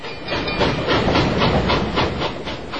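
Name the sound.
train running on rails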